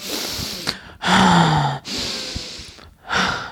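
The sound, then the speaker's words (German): A person imitates the heavy, puffing breathing of someone breathing on another while sleeping: three loud, breathy gusts in and out, each lasting under a second, separated by brief pauses, with no words spoken. “Nein, aber es ist einfach so, wenn du die ganze Zeit so angepustet wirst, weil du dann so”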